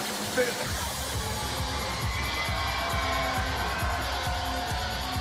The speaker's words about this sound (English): It's nice to hear smaller arenas where you yeah. can hear like the reverb of the crowd.